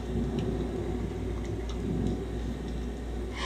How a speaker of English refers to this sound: As the rain pelted, the thunder boomed, the wind rattled the walls.